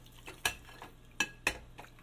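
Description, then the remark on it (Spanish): Dishes being washed by hand, with water rinsing the soap off a plate: several sharp clinks of plates and cutlery at irregular intervals over a soft background of rinsing and handling, fairly quiet, no one talking. “Espérame tantito, que estoy lavando los platos.”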